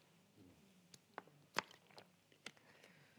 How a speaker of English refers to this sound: Oh, it's horrible. You can hear my water swallowing. Terrible.